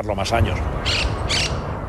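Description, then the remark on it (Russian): Harsh, raspy squawks of a South American parrot in Madrid burst out three times in quick succession, loud, each call short and grating against a steady background hum. “Мадрид объявил войну незваным гостям из Южной Америки. Но эта задача не из легких. Ведь по сравнению с людьми у попугаев есть одно преимущество – они умеют летать.”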